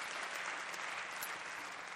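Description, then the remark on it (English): A crowd at a church sermon applauds steadily, a dense wash of many hands clapping at an even, sustained loudness for the whole stretch with no voices breaking through. “You might not clap on the second one”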